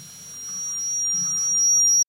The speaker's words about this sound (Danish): Og så står vi så på hver vores scene, og så er det så lyden af vores skridt, der ligesom bliver amplificeret. Ud og så i til sidst går I feedback med hinanden. Ja. Sådan så det til sidst øh, skaber øh, en, en, en rigtig høj, diskant øh, tone.